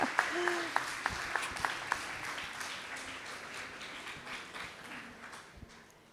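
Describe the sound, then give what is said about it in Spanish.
An audience breaks into sustained applause, a dense wash of clapping with a few sharper claps and faint voices early on, holding steady before tapering off slightly toward the end. “Vamos a recibirlo con un aplauso.”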